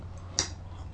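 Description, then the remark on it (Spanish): A spoon stirring a still-hot drink gives a single bright, high clink against the cup, short and sharp, over a low steady hum, with no one speaking. “Bueno, eh, me extendí un poco en el primer tema, así que me voy a dar otro sorbito. Revuelvo que todavía está caliente.”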